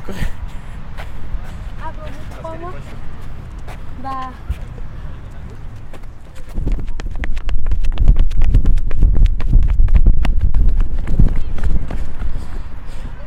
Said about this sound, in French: Quand on est dans la course, je me disais en fait, on entend du vent, ils vont tellement vite.